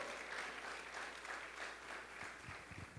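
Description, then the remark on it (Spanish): An audience applauds the announcement that the event is now also on YouTube as well as Facebook Live, a dense, steady wash of many hands clapping that holds at an even loudness for about three seconds, with no distinct voices over it. “Please give a hand clap for that.”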